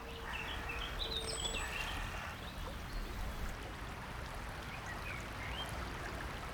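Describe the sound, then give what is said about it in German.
Several waterbirds call across a man-made pond with three islands in a nature biotope, with scattered quacks and chirps over a steady wash of water and outdoor background noise, fairly quiet. “Wie wertvoll die Schaffung des Weihers war, zeigt allein schon die Vielfalt an Vögeln.”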